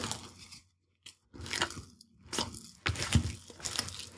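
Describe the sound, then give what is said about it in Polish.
Wet, sticky squelching and crunchy scraping come in irregular bursts separated by brief pauses as bread dough of rye and buckwheat flour, salt, sourdough starter, water, flaxseed and sunflower seeds is mixed in a bowl with a large silicone spoon. “Mieszam to tylko tyle czasu, dopóki widzę, że jeszcze gdzieś tam te one są niepołączone.”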